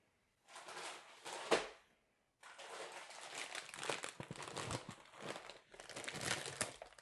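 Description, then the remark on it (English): A crinkly plastic bag of barbecue flavor Lay's potato chips being handled, with a short burst of rustling, a brief pause, then several seconds of continuous loud crackling and crunching of the bag, no voices. “This is the barbecue flavor Lay's potato chips.”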